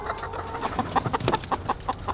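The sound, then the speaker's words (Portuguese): About 150,000 caged hens in a dimly lit poultry pavilion cluck together indoors, a dense chorus of short, repeated calls overlapping in a steady rhythm, moderately loud with no talking. “já estás no meio das galinhas”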